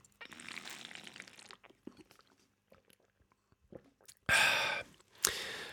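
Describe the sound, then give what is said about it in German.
A rustle of handling gives way to soft wet clicks of someone taking a sip of water and swallowing, followed by two loud breathy exhales. No one speaks. “Gerade war die kleine Storytime, ich nehme kurz einen Schluck Wasser.”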